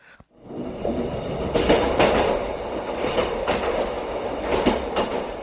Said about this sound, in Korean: 아 기차 왔잖여